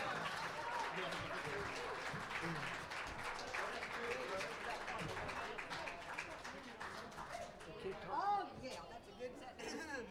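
An audience at a live gospel music show cheers and applauds steadily, a dense wash of clapping with whoops and shouts over it, holding at a fairly loud level before starting to thin out near the end.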